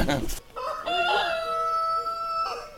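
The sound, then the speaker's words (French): A rooster crows once, loud, a long harmonic call that rises and holds before trailing off, following a brief burst of noise at the start. “son cheval, son poney, ses coqs, ses chiens.”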